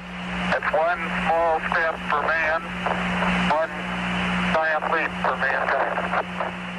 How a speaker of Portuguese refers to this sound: Pelo jeito foram gravadas num aparelho bem antigo, não tá cara. Tem um chiado no fundo, vê se você percebe.